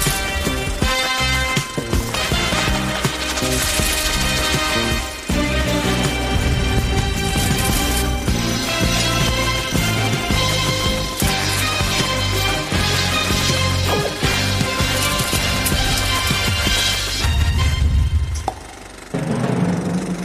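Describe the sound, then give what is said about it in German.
Loud, dense music plays continuously for about twenty seconds, with a heavy driving beat and bright layered instruments, ending in a brief low rumble and drop-off. No voices are heard. “taube Ohren nach diesem Intro, was hier im Studio wirklich brutal laut war.”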